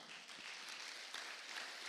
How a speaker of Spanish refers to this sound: Dele palmas al Señor, hermano.